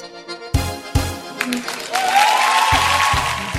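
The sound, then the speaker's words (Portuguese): A burst of crowd applause, a dense hiss of clapping that swells and holds, mixed with a few heavy booming drum hits and a rising tone, with no one speaking. “Tá atrasado esse pessoal das palmas aí.”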